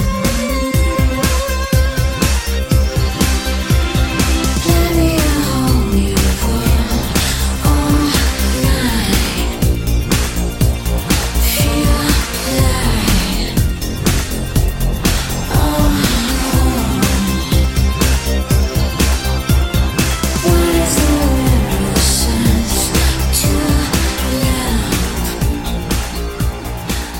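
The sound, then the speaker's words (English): A layered electronic dance track made with vintage synthesizers plays loud and continuous, with thick synthesizer lines and a deep bass riding over a steady, driving beat, and no voices talking over it. “I think it's just such a layered, aurally intricate electronic dance song.”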